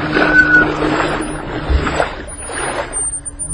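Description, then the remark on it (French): A boat moves along river water with steady swishing and lapping, a low droning hum running underneath. Fairly loud, with no voices. “Cet horrible monstre ce squelette qui conduit le bateau l'a détruit.”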